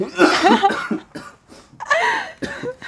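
human body sound, loud coughing

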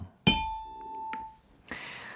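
signal or alarm, ding-dong-dang chime sound effect

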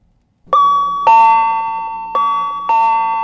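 signal or alarm, doorbell chime

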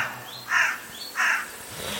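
bird, crow cawing

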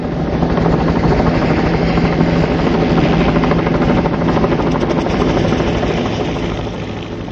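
vehicle, helicopter flying

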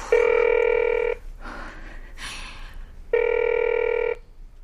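signal or alarm, telephone ringing

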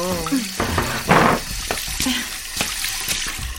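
household object, washing dishes

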